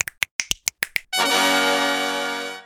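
Seven crisp finger snaps in a quick, even rhythm, clear, followed by a bright sustained musical tone that rings out and slowly fades.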